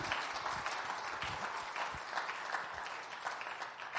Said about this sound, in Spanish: Gloria al Señor. Un aplauso al Señor, hermanos. Gloria a Dios. Aleluya.